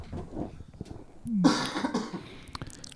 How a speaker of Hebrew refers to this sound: רגע, שנייה, אני מחזיק פה שיעול.